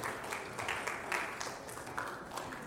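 An audience applauds steadily as their newly called pastor and his family are brought back in after the vote: dense, overlapping clapping forms a continuous crackling wash at moderate volume, with slight swells throughout and no voices standing out.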